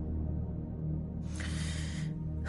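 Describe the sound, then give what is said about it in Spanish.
A man breathes heavily, one long, airy exhale followed by the start of another breath, moderately loud over a low, steady background hum. “Tyrell respirando, Asiente repetidamente con gesto decidido.”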